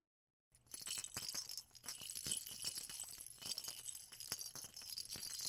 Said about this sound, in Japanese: 赤ちゃんをあやすカラカラさっきと同じ後悔でも赤ちゃんの声は聞こえませんね